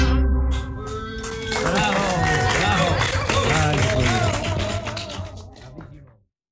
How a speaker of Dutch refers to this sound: Applaus